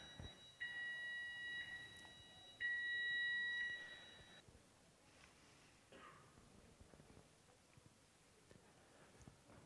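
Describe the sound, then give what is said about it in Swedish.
A fire alarm sounds in two long, shrill electronic tones over a continuous high whine, then cuts off, leaving quiet background noise with scattered soft knocks. “Nu går brandlarmet.”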